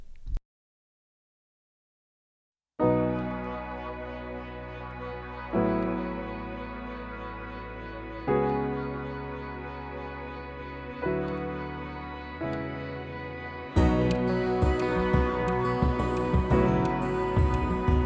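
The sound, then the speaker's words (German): A German pop song with a guest rapper opens after a brief silence with sustained keyboard chords swelling in repeated waves, then a full beat with drums kicks in near the end. No voices are heard. “ein bisschen thematisch passende Musik der Klasse Band von … mit einem Gastauftritt von ….”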